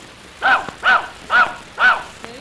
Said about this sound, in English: Hey, what a smart dog.